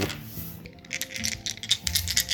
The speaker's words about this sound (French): Beaucoup de dés pour des petites mains. Fait que là, on est en train de jouer à High Risk. C'est un jeu euh, de de Poustaloc. Oui. Ouais. Avec une montagne, puis des alpinistes qui montent une montagne. Puis euh, on lance des dés.